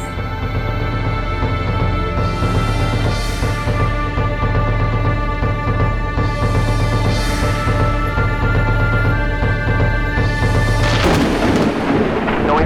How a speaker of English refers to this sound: And I saw when the Lamb opened one of the seals, and I heard, as it were, the noise of thunder, saying, Come and see.